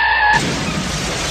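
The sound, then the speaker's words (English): A car crash sound effect: a short high squealing tone cuts off into a sudden loud burst of crunching, roaring noise that fills the rest of the moment, with no voices. “But let's let's do the the car crash sound again for 2021.”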